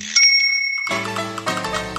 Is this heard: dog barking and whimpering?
no